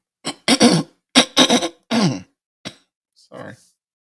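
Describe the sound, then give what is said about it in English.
A fit of a lingering cough: several harsh, rough bursts in quick clusters, followed by a couple of softer, trailing coughs and throat-clearing sounds as the fit dies down. “Still haven't been able to shake this this cough for some reason.”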